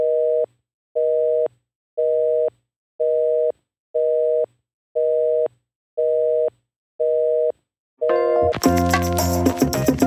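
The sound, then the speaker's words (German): A phone line's busy tone beeps eight times in a steady on-off rhythm, loud and clear, before a sudden burst of harsh, crackling noise cuts in at the end. “Ich habe einen Tuten äh, auf der Leitung.”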